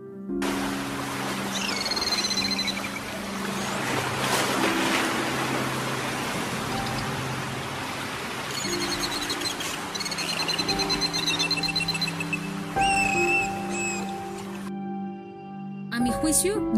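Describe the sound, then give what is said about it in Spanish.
Underwater dolphin sounds: repeated high, sweeping whistles and scattered sharp clicks over a steady low droning hum, moderately loud throughout. “Escuchemos un poco el sonido de un delfín.”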